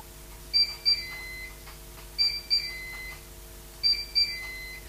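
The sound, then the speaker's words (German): A grill with removable plates and a fat drip tray beeps to signal preheating is done before meat is grilled: three sets of two quick, high-pitched electronic beeps, evenly spaced, sounding clearly over a faint steady hum with no talking. “So, die Aufheizphase ist jetzt abgeschlossen.”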